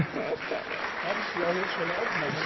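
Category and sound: crowd, applause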